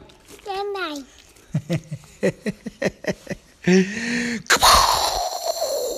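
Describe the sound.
A young voice imitates a lightning strike while telling a story about a heavy rainstorm: a wavering vocal sweep, a quick series of short clipped bursts, then a loud, harsh hissing crash that slowly trails off.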